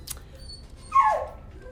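A single dog yelp, a short high-pitched cry that slides downward, heard close and clear against faint background noise, with a brief scuffing sound just before it.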